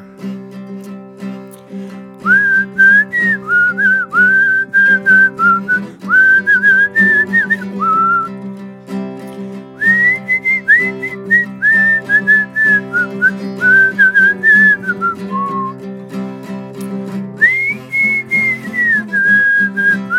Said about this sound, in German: So, ich würde vorne pfeifen, damit Sie die Melodie einfach einatmen können zu Hause.